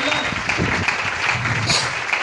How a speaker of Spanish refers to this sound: Un fuerte aplauso.